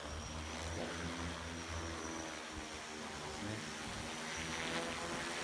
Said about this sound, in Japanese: これはもうあのよくあるドローンですね。これも、ですね。